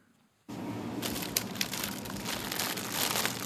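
A plastic bag of carrots crinkles and crackles as it is put into a shopping cart, continuously for about three seconds after a brief quiet start, a dense, fairly loud rustling with a few sharper crackling peaks, no voices.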